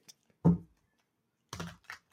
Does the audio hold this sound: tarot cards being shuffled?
yes